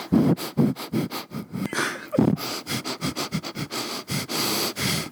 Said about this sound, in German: Nie das Atmen vergessen. Das ist die stillste Folge, die wir je gemacht haben. Atmen.